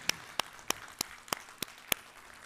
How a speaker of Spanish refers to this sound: Gloria al Señor. Dale ese fuerte aplauso al Señor.